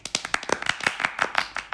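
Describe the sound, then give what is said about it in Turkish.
Rapid, steady hand clapping from a small group, sharp overlapping claps with a bright, crisp attack, continuing evenly throughout without any talking. “ben kendimi tebrik etmek istiyorum. buraları alkış.”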